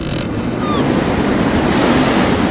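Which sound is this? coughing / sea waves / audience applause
sea waves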